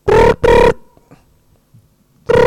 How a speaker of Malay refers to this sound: Alamak ada bunyi telefon lagi lah